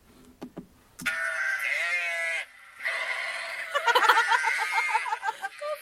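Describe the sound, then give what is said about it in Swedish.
Sheep bleat loudly, a long wavering bleat followed by a second, shakier one, with no talking over them. “Ska vi lyssna på fåren igen?”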